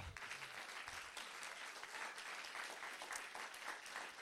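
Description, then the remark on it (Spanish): A church audience claps steadily and loudly for several seconds, giving applause to the Lord during a sermon, the dense mass of hand claps filling the space like a large gathering applauding together. “Alguien le da un aplauso al Señor.”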